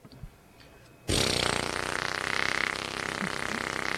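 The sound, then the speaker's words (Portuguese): After a moment of near silence, the small 50cc engine of a Chinerai moped abruptly starts and runs loudly and steadily, a buzzy, rattling idle with no talking. “Quer ouvir o motor ó, das cinquentinhas?”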